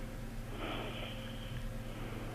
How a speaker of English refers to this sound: Is there someone asleep in the studio? I can hear some really weird, heavy breathing.